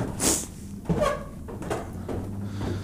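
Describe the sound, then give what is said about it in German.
Old wooden floorboards in an old house creak and groan underfoot in a few drawn-out, squeaky bursts, moderately loud against quiet surroundings. “Aber auch hier die, die Dielen knarzen.”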